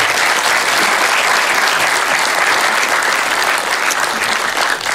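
An audience claps steadily and loudly for the full five seconds, a dense, even wash of many hands with no voices standing out above it.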